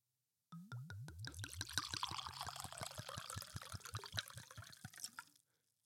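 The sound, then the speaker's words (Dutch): Wine of 13.5 percent alcohol glugs from a bottle into a glass, a quick run of rhythmic gurgles that settle into a steady, splashing pour lasting about five seconds before stopping. No one speaks. “Als, uh, als je denkt, eh, oh, ik heb een geluidseffect nodig voor uh, wijn.”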